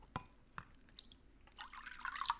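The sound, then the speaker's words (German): Water drips with a few separate plinking drops at first, then a quick, denser patter of droplets as if trickling steadily; fairly quiet, with no voices. “Ich finde, immer wenn wir jetzt von Wasser reden, ah.”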